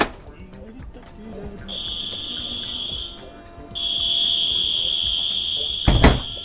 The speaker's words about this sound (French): Madame, monsieur, notre train à destination de Paris-Gare de Lyon va partir. Attention à la fermeture automatique des portes, attention au départ.